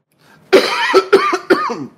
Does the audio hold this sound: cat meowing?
no